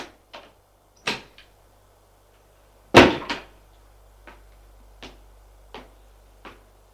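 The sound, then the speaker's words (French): A door at the top of a staircase is opened: a series of sharp wooden clicks and knocks from the latch and handle, one louder clunk in the middle, then fainter taps, over a low steady hum. “Il l'ouvre.”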